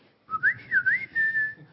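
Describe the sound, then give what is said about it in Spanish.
A person whistles a short imitation of the WhatsApp notification tone: a quick wavering up-and-down phrase that settles into a steady held note, fairly loud over a low background rumble. “Ojalá no sea el, pitito del WhatsApp de...”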